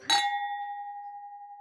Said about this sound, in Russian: За команду. Выпьем, выпьем, выпьем. У вас что, нет бокалов? Ну, сделайте нам звуки стучащих бокалов.